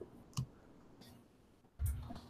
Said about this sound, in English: Oh man, I just I hit enter. Um, I try to put my name and and my email there.